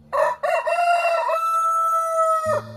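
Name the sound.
rooster crowing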